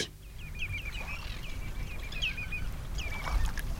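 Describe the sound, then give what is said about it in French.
Seaside ambience at Douarnenez with a steady low rush of wind and surf, while gulls call repeatedly in short, bright, squealing bursts. “Vent et Mouette et Algues Vertes”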